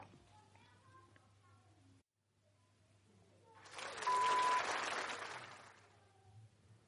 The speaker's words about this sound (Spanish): Me he liado, me he liado y he puesto aquí aplausos, tomas falsas, ya no sé qué he puesto.